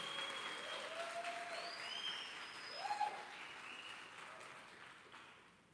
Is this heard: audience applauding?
yes